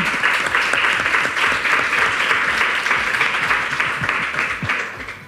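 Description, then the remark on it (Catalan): A live audience applauds the technician in the booth, a dense steady wash of many hands clapping at once, loud, fading only slightly toward the end. “Un aplaudiment per ahir també.”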